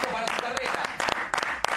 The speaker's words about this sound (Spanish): Sí, un aplauso.